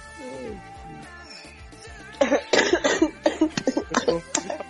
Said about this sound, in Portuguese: Peraí que agora eu tenho que tossir.